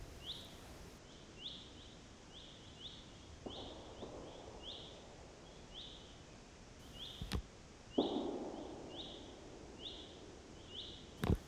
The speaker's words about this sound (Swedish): Precis när jag kommit till rätta i mitt gömsle så börjar tjädrarna göra sina inflog. Det är väldigt mäktiga ljud, kraftig bas och så slutar det hela med en smäll när de landar.